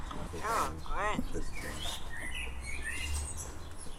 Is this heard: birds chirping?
yes